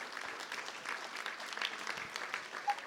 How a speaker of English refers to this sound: Please, a round of applause.